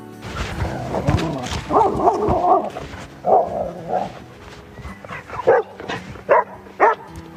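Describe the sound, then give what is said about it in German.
A dog barks and yips in a run of sharp bursts, a cluster early on, then quicker high yelps spaced out toward the end, with no talking. “was meinst du? Geh mal wieder nach Hause?”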